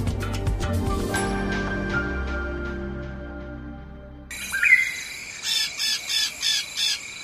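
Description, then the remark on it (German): After a fading musical tail, dense rainforest ambience rises: a steady high insect buzz with a run of five loud, harsh, evenly spaced bird calls. “Wer an den Regenwald denkt, hat ihn gleich im Ohr, den typischen Sound der grünen Hölle.”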